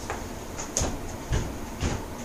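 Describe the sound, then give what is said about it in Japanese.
A few soft thumps and clunks spaced out over a couple of seconds as a refrigerator door is opened and shut by someone getting something from it, with a faint steady hum underneath and no talking. “どうされましたかいや冷蔵庫に何かを取りにあ飲み物はそっちまだあったんですか”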